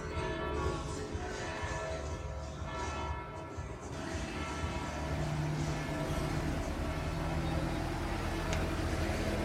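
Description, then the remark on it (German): A steady low engine hum from a slow white tourist road train with two wagons, driving through the town of Lecce, dominates, with church bells ringing faintly underneath throughout, the whole scene loud and continuous for nearly ten seconds. “Übrigens, das Brummen, was jetzt gerade das Glockengeläute übertüncht, das ist so ein weißer Touri-Zug, der immer durch die Stadt fährt.”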